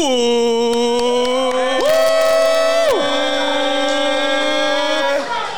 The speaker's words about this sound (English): It is a rowdy crowd here. It is rowdy here at the Pilsner House Beer Garden in Hoboken. Give it up for Pilsner House.